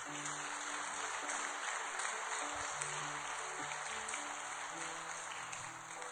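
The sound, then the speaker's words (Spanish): An audience claps steadily and loudly for several seconds as applause for God, a dense crackle of many hands, with soft sustained keyboard tones faintly underneath. “Dele un aplauso bien fuerte a nuestro Dios.”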